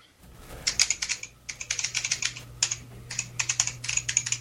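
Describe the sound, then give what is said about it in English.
Rapid typing on a Matias mechanical computer keyboard, with crisp clicky keystrokes in quick bursts separated by short pauses, fairly loud over a faint low hum. “I have the Matias one. Want to hear it?”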